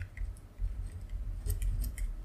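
Quiet handling noises: a few small clicks and scratchy taps from a pen being picked up and moved over paper to write something down, clustered near the end over a low background rumble, with no talking.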